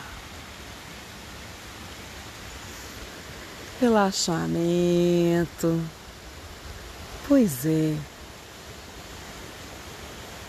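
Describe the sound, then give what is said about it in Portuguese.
Steady, even rushing of a flowing river fills the background throughout, mixed with the noise of running and trotting coming up close, with a person speaking briefly over it in two short bursts midway through. “O barulho que vocês ouviram misturado no rio foi a”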